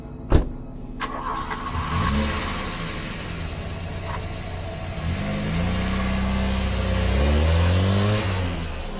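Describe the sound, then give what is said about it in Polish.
A sharp click, then a car engine cranks and catches, revving several times in rising sweeps as the vehicle pulls away and accelerates, with no voices. A woman detective gets into her car at 22:50 at night and drives off to a crime scene. “Rzuca tylko do słuchawki, po czym pospiesznie ubiera się i wsiada do samochodu.”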